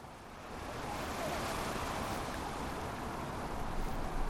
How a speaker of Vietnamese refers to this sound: Cảnh tượng thật đẹp với tiếng sóng biển vỗ dập dìu không ngừng.